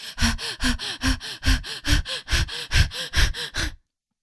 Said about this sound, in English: Breathing really fast.